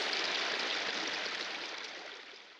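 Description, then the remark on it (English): Shower water runs in a steady, dense hiss that fills the space, tapering off slightly toward the end. No voices are heard. “The shower leaves him feeling significantly more human, but that comes hand in hand with all the human necessities Tony has been ignoring for the better part of the past week.”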